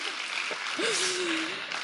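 Steady audience applause fills the whole moment, a dense, even wash of clapping, with a brief sustained vocal tone rising over it partway through.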